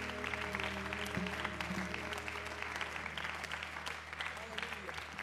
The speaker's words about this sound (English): And would you lift up a hand clap of praise unto the Lord before you are seated?